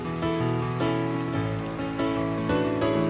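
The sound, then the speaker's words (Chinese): An audience applauds in a dense, steady wash of clapping that holds for about three seconds, with a faint musical tone underneath and no one speaking. “你们不用点掌声来祝福我早日达成它”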